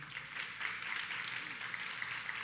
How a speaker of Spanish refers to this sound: Qué bueno poderles tener medio nuestro. Yo creo que demos un aplauso a las personas que nos visitan en esta mañana.